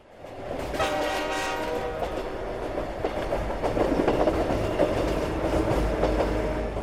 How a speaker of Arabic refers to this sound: كان القطار الآتي من الشمال يهدر وهو يخترق الضباب آتيا في سرعة وكشافه الأمامي تحيطه هالة كالهالة التي تحيط بالقمر